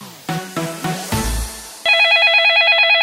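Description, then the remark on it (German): A few short tonal beeps give way to a burst of low noise, then a loud, steady trilling phone ring pulses rapidly and continuously until the end, with no voices: a telephone ringing in a hair salon in Rhineland-Palatinate, Germany. “Nicht erschrecken, Handy in der Tasche lassen, das ist nur das Dauergeräusch seit gestern in rheinland-pfälzischen Friseursalons.”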